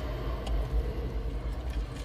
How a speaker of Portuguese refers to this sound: agora por exemplo vai passar um avião